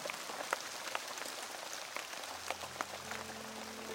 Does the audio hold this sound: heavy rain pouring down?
yes